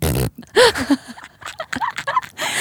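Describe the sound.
A short burst of noise, then a voice making wet, grunting, fart-like sounds, a few quick blurts that end in brief vocal murmurs.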